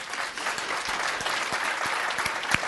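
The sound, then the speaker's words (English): An audience claps hands together in a steady, dense wash of applause, many overlapping claps blending into continuous noise with a few sharper individual claps standing out. “I think of, can you clap your hands?”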